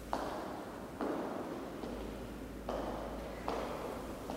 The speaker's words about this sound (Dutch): Ze draagt hakken. En wanneer we samen door het gebouw lopen, weer klinken die bij elke stap die ze zet. En galmen ze nog even na.